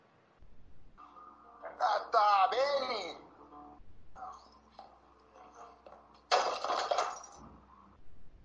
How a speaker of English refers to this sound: Well, that was fun. That was a lot of broken glass.